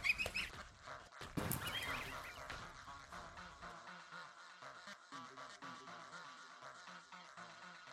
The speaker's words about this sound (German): Erneut erblickte er Gänse. Diesmal etwas kleiner, quakten sie dennoch lautstark in gutmütigem Grand.